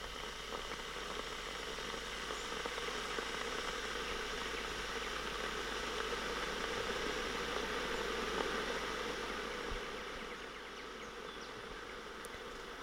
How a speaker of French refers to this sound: Donc ça, c'est le bruit de la bouilloire que nous mettons en marche plusieurs fois par jour euh, afin de faire chauffer de l'eau euh, pour boire des tisanes ou des thés en sachet.